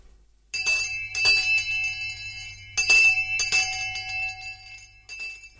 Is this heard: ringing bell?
yes